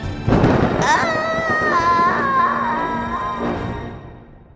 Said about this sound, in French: Mais l'orage la surprit, et dans un bruit de tonnerre, la foudroya.